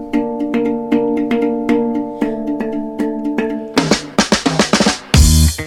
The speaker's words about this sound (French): regardez le carillon hein, à la cuisine. il est déjà, il est déjà l'heure, messieurs dames. Il est 10h